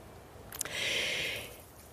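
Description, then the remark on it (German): A dog moves through dry grass outdoors in the sun: a couple of quick crackles, then a soft, steady swishing rustle lasting about a second before it fades. No one speaks. “Was du gerade hörst, ist die Lucy, die liegt hier bei mir in der Sonne und läuft durch das trockene Gras”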